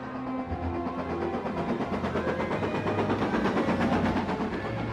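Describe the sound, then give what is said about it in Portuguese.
A train rolls steadily along, its continuous rumbling and rhythmic rattling filling the scene at an even loudness, with no voices present. “E nesse momento ela tomou a decisão de mudar de vida, pegou um trem para Portugal.”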